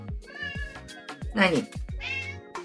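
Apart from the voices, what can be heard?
domestic cat meowing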